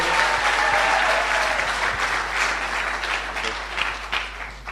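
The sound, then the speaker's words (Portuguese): An audience breaks into steady, dense applause for two pastors. Many hands clap at once in a loud continuous wash that eases slightly toward the end. “Un fuerte aplauso para los dos pastores.”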